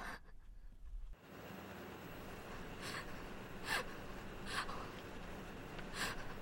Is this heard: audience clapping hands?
no